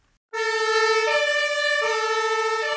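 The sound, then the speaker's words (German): A fire engine siren being tested starts abruptly and blares loudly, switching between two alternating tones in a steady two-tone pattern with no voices, on the factory grounds of Albert Ziegler GmbH in Giengen an der Brenz, where fire engines are inspected and tested before delivery. “Dort stehen Dutzende knallroter Feuerwehrautos, die vor der Auslieferung abgenommen und getestet werden müssen.”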